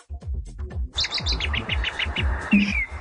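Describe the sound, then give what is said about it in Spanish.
A played recording of birds chirping: a quick, steady series of high tweets repeating over a low, rhythmic background rumble, fairly loud, with no one talking. “Ahí le pongo pajaritos.”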